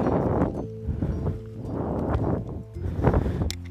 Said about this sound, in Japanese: こんな感じですね。牛の、ね、川のせせらぎ、とてもよく聞こえますね。